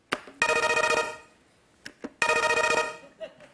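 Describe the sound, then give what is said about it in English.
A game show buzzer is tested to see if it works before a song-guessing game. It sounds twice, two loud, harsh, bright blasts lasting under a second each, separated by a short pause with a few faint clicks and murmurs. “Do you want to test out the buzzer to see if it works?”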